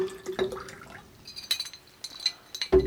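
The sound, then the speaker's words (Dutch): Pure water pours into a small glass container in short trickles and drips, with bright ringing splashes at irregular intervals, fairly quiet, with no voices. “Je krijgt nog een beetje zuiver water van mij.”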